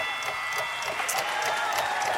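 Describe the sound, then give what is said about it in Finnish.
A steady burst of applause from a crowd, dense overlapping clapping that fills the whole moment at an even, fairly loud level without any clear speech over it. “Ne on aplodit.”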